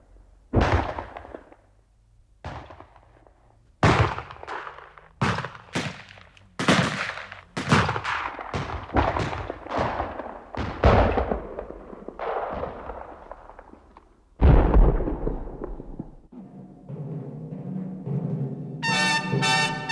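A barrage of sharp explosive blasts from artillery shelling with grenades, some single and some in quick clusters, booming with rumbling tails, followed by a large deep blast and faint sustained tones near the end, with no talking.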